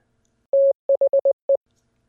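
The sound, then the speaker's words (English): Morse code tones spelling out the word "the": a steady high beep gives one long dash, then five quick dots, the last set slightly apart. Clear, with silence around them. “When you put those series of dots and dashes together, you're not just hearing, you're hearing the word the.”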